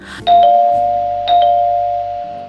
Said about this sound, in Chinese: 这时候，突然有人按门铃